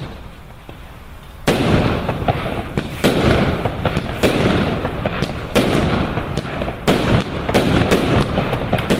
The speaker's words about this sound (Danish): Altså, det er stadig pænt, det der fyrværkeri, og en øh, smule farligt.